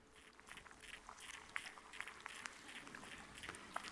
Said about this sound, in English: and immediately the critter began to absorb the microphone into its belly, and the tentacles were searching out the surface for something of nutritional value, the static like sounds that are very low that you're going to hear right now.